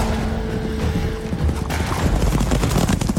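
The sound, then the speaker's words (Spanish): A rapid barrage of gunfire in the Mexican Revolution, begun 20 November 1910, many overlapping shots crackling in quick succession over a low rumbling din, building from a steady tone into dense, continuous bursts. “Claro que volaron balas y muchas, porque no toda la oposición que enfrentaron estos revolucionarios era vampira”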